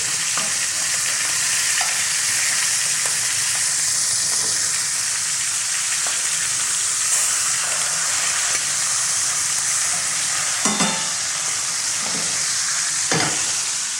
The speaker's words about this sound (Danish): Nu nærmer vi os. Det er jo til lige at give den en lille smule på siden også, for at få noget ekstra stegesmag.